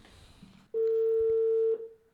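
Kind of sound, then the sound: signal or alarm, telephone dialing tones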